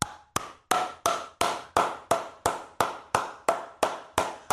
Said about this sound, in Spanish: Yo aplaudo bien duro. Espérate, espérate, espérate. Eso es de, la- de los talentos. Este es un show de imitadores. Pero escúchate este aplauso, ¿lo puedo hacer? Me voy a tardar un poco a lo que coge el ritmo.